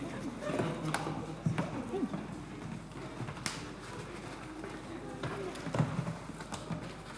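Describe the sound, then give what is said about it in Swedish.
Sheep hooves clatter on a hard surface in a quick, uneven trot as the sheep approach, with faint voices murmuring in the background. “Om det är någon som törs, om det är någon som vill, så går det att komma fram nu och klappa de här fåren.”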